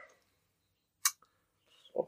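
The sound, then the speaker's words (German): A short, sharp lip-smacking click about a second in, followed by a tiny second tick and then soft mouth and breath noises. “Wenn, wenn, wenn mit einem also kurzen also, Schmatzer anfängt, ist schon nicht fertig. und den hört man jetzt.”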